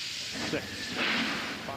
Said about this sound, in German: Liftoff. Die Rakete zündet. Drei Astronauten, reiten auf einem Feuerball in den Himmel.